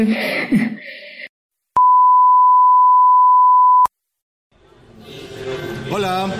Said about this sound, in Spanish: Ay, bueno, no. Ahí le pones un beep.